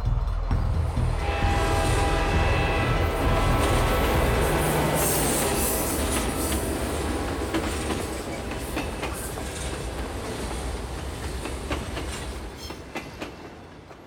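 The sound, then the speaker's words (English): A loud train approaches and roars by on a hot, dry afternoon with steady rumbling and rhythmic clacking of wheels on rails, its bell ringing and its whistle sounding sustained tones early on, before the noise gradually eases as it passes. “The train was coming closer. I could hear its bell, its cry, its whistle crying.”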